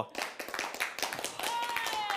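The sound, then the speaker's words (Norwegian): A group claps as fast and hard as they can for about 7.5 seconds, a dense, loud flurry of overlapping sharp claps with no steady rhythm, holding its intensity throughout with a thin faint tone toward the end. “Dere må klappe så fort og så hardt dere kan i sånn 7,5 sekunder.”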